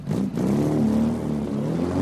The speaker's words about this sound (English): So cars are a big part of my life. I just love opening up a car driving down the highway.